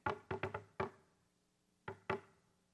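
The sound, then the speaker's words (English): Sharp, resonant knocks on a door: a quick run of five raps, a brief pause, then two more, clear with no voices. “Meanwhile, the grace of God's knocking on the door.”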